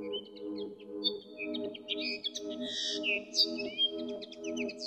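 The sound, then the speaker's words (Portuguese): A small songbird, brown with a reddish breast and no more than 14 cm long, sings a continuous, busy stream of high chirps, trills and whistled notes over a steady low hum in the background. “À semelhança de muitas outras aves canoras, esta canta e encanta, com as suas vocalizações que às vezes parecem intermináveis.”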